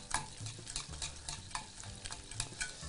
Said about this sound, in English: Continue to whisk the cheese into our fonduta. Beautifully rich, creamy fonduta.